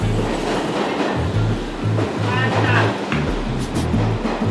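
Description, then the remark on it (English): A subway train rumbles steadily along the rails, loud, with a low rhythmic clatter from the wheels and a constant roar of carriage noise throughout. “It might be the last stop for everybody else on this train, but our journey is just getting started.”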